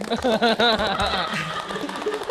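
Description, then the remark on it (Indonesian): An audience claps steadily for a couple of seconds, the dense patter of hands mixed with cheering voices and some laughter throughout. “Tepuk tangan dulu kalau begitu.”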